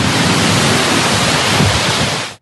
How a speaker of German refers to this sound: So, meine Lieben, in etwas alpineren Gelände, ich rede ein bisschen lauter, weil da unten ein jo, fetter Klammbach fließt.